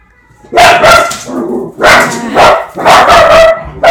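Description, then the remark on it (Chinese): A household's dogs bark loudly in three quick clusters of sharp, mid-pitched barks, each burst made of a couple of overlapping yaps, with brief pauses between, reacting to the neighbours coming home; no one speaks. “对不起，因为我们家的狗很吵，因为我们家邻居回来，邻居回来的时候，他们一定要表现一下，他们有在过家，绝对不是只吃饭不做事。”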